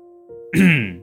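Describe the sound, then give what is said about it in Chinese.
A man with slicked-back hair coughs softly twice: a faint, brief first cough, then a longer, voiced, throaty one that drops in pitch and trails off. No one speaks. “背头男轻声咳嗽两下，说：”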